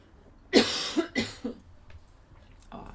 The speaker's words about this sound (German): Mal kurz husten.